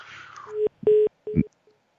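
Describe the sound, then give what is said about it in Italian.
A phone line tone after a listener's call to a radio show dropped: three short, steady beeps at one mid pitch, separated by brief gaps, following a stretch of faint crackly line noise, then quiet. “Non c'è, è caduta è caduta se non sbaglio.”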